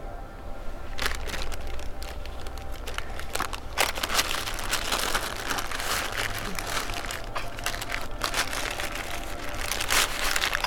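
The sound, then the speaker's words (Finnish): Continuous crinkling of newspaper being wrapped around fish and handled, with irregular bursts of crackly rustling over a low steady hum for about ten seconds. “vähän ei ole hyvä, hyvä panna mitään kalan muovipussia, mutta nyt me väh, vähäksi aikaa vaan kääri vaikka sanomalehtiä tai jäihin sitten pakkaus.”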